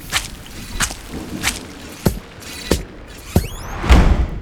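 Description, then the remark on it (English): A door shuts by itself, slamming with a heavy, fairly loud thud near the end, after a run of sharp, evenly spaced clacks. No one speaks. “Now the door just shut itself.”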